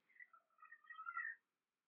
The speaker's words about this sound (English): Sorry if you can hear my cat crying.